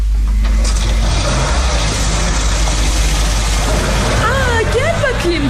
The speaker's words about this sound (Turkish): Ben arabayı çalıştırıyorum.